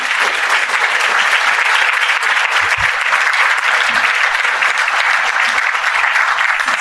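An audience applauds steadily for several seconds, a dense, even wash of many hands clapping at constant loudness with no voices standing out.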